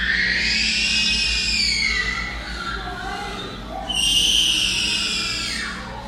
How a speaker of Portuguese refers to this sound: O porco grita de um jeito desesperado, cara. Tipo aquela criança que tem aqui no condomínio. Uhum, Bota aí o áudio, áudio da criança que grita aqui no condomínio.